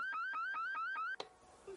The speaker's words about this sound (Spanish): Válgame, señor. La alarma debe estar mal.